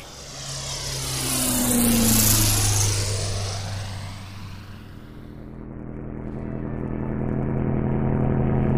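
A propeller airplane engine roars loudly and steadily during takeoff, its droning pitch shifting as the aircraft powers up and moves off, with a strong low hum and broad whooshing noise throughout.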